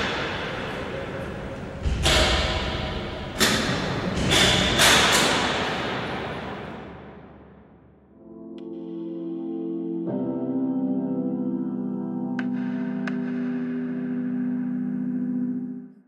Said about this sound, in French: On a entendu du bruit du bruit de verrou dans un extrait d'une création de Jean-Baptiste Fribourg à partir d'un atelier son mené dans une maison d'arrêt, Son de prison, mis en ligne en 2009 sur Arte Radio.